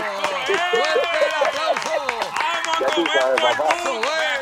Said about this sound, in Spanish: ¡Oh! ¡Eso es! Ah, ¡Aplauso!